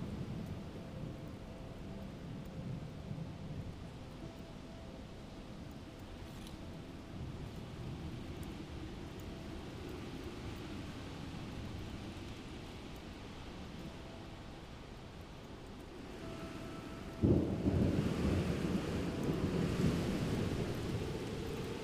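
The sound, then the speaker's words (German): Steady rain hisses under a long, low rumble of rolling thunder, with a louder swell of storm noise near the end. No voices. “Der Sturm tobt um dich herum, aber dir kann gar nichts passieren.”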